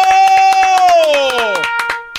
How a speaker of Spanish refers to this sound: ¿Sabe qué, maestro? Déjeme le aplaudo. ¡Bravo! ¡Bravo! ¡Bravo!